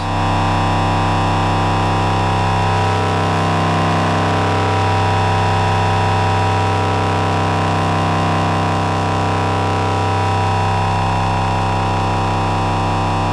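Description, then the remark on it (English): A loud, buzzy distorted synthesizer drone holds steady for about thirteen seconds, rich in harsh overtones and completely dry, with no reverb tail or echo, and no voices. “So that's fully dry.”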